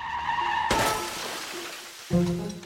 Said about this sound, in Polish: W widowiskowym pościgu wjechał w samochód kierowany przez starszego mężczyznę,